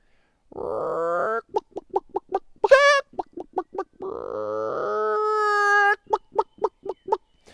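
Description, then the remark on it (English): Fifteen chickens in a cage cackle and cluck loudly, long drawn-out squawks alternating with rapid bursts of short clucks in a repeating rhythm, with no talking. “And I tell you, they were cackling and they were singing and they were like saying, Let us out of here, let us out of here.”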